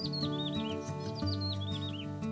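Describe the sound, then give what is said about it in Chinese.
Small birds sing in the trees of a community garden in quick, high, downward-sliding chirps, repeated in short bursts over a steady, sustained musical backing. “很快的，花园成为社区里最受欢迎的地方，大家会来到这里，闻甜甜的花香，还有听小鸟们在树上歌唱。”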